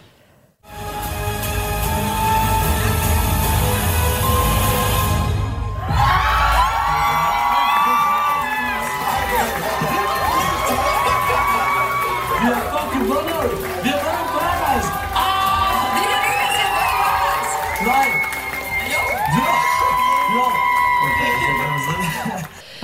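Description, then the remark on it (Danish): A TV show's studio hall audience erupts in loud cheering as a contestant makes her decisive choice: a dense roaring burst for about five seconds, then sustained cheers with overlapping whoops, shouts and high screams that stay loud until the end. “Men skal vi lige høre, hvordan det lød i, i salen, ja.”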